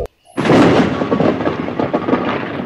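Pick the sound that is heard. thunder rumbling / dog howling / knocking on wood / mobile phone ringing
thunder rumbling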